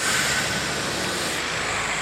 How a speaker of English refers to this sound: Honestly, I have never known. You can hear how many cars are coming through now. I have never known that bit of road be so quiet.